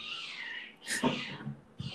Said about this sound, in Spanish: o se te está muriendo el gato en verdad mi gato, eso es el de la vecina.